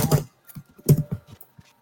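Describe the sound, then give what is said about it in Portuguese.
Clatter of someone typing on a computer keyboard while a microphone is open, with irregular keystrokes and a couple of heavier, louder taps among lighter clicks. No voices. “Para de teclar com o microfone aberto,”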